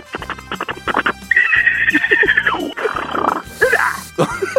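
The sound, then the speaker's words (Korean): A person imitates a zebra during a radio voice-impression contest, with quick hoarse yelping barks, then a long strained braying whine and more gasping honks. The voice is loud, with no talking. “얼룩말 소리 한번 내보겠습니다.”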